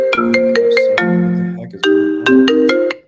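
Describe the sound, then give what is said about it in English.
A phone ringtone plays a bright, plucked melody of quick notes, pausing briefly before the phrase repeats, loud with no talking over it. “sorry i have my phone disconnected i don't know why it keeps doing that”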